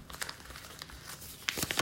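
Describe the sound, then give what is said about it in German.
Paper crinkling as a 5-euro banknote is pulled from a pocket to be held in front of a phone camera for a currency recognition app, a run of crisp, irregular rustles and crackles with a louder burst of crinkles toward the end, no voices. “Ich habe hier was in der Tasche und halte das jetzt mal vor die Kamera.”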